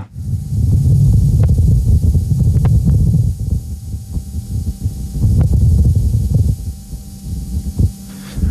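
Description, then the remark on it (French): The Perseverance rover driving over rough ground on Mars makes a continuous harsh, grinding rumble with a hissy edge, scattered with sharp clicks and squeaks, swelling louder in two stretches before easing off, with a gust of Martian wind blowing in the background. “Mais cette fois-ci, on entend clairement le bruit strident du rover qui avance sur Mars.”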